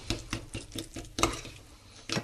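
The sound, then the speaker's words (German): A utensil stirs briskly in a bowl, mixing a salad dressing of vinegar, salt, pepper and Dijon mustard, making a rapid run of clinking, scraping strokes about four or five per second, then a short pause before a final louder scrape. “So, etwas Essig, etwas Salz, Pfeffer, Senf. Verrühren.”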